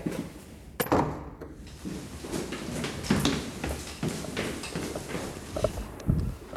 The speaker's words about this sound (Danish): Jeg smækker døren.